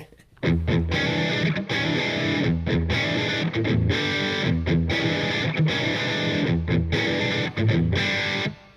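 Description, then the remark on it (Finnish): A short, loud jingle built on a heavily distorted electric guitar riff, chugging in punchy repeated bursts with brief gaps, dense and saturated throughout, no voices. “Siinä on toi loistava kitarariffi”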